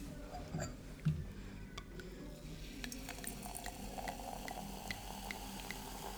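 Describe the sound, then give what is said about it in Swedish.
Champagne pours from a bottle wrapped in a small sock, with a steady liquid gush and a fizzy crackle of bubbles that builds and continues to the end, fairly quiet. “Du ser ju ändå inte vad det är för flaska om du öppnar här då.”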